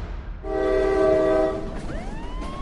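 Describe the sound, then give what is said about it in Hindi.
A loud, steady train horn blows for about a second over low rumbling background noise, followed by fainter rising whistle-like tones, the busy ambience of a crowded railway station area. “सारे officers railway station के इलाके में फैल गए वो इलाका काफी भीड़ भाड़ वाला इलाका था”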